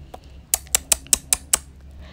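Typing on a computer keyboard: six crisp, evenly spaced key clicks in quick succession, clear against a quiet room with a faint low hum.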